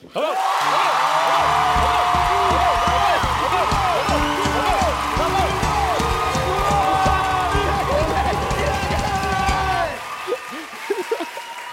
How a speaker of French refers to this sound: Les amis, qui est chaud à l'applaudimètre pour le tatou 2